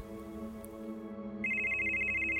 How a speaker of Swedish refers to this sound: Ett par timmar senare ringer telefonen.